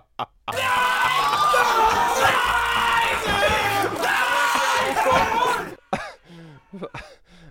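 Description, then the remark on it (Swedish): An edited chorus of two men, one of them Vegard Ylvis, screaming together in a loud, sustained, overlapping 'scream symphony' for about five seconds, their strained voices wavering in pitch, then it cuts off abruptly into brief, quieter vocal sounds. “Jag och ena Ylvis-brorsan helt enkelt, i någon form av skrik symfoni. Den som skriker lägst förlorar.”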